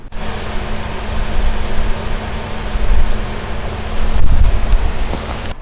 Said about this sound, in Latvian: Tā, un mēs pat dzirdēsim ūdens šalkoņu